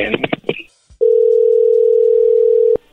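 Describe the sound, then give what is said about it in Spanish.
A steady, loud telephone dial tone, heard while a phone call is being dialed, holds for nearly two seconds and then cuts off abruptly, following a brief stretch of voices at the start. “Bueno, no haga ruido, ahí se está marcando.”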